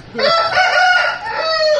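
A rooster crows loudly, one long strained cock-a-doodle-doo that stretches across nearly two seconds with a wavering, nasal pitch.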